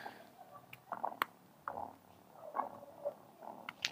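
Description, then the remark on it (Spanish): A domestic cat named Romita purring softly, a faint, low rumbling in slow rhythmic waves that swell and fade with each breath, with no talking. “Acá está, mi ronroneadora.”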